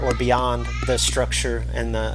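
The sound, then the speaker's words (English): A two-year-old cries in the background, high-pitched wails running under a man talking steadily during an interview about NHRA racing, over a low constant hum. “you can hear my, my two year old in the background”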